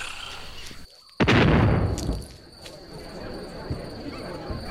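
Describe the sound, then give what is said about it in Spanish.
A single cannon shot, fired after dark, bursts out after a brief hush, a loud, deep boom that rumbles and fades over about a second, with a steady hiss of background noise throughout. “Los cañones comenzaron a sonar apenas oscureció.”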